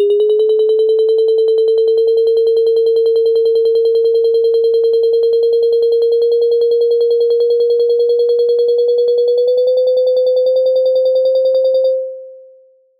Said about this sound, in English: Okay, I'm just going to play that one. The lowest value on the chart is zero, and the highest value on the chart is 2,364 millimetres of rain, and each note is a day from the 1st of January onwards.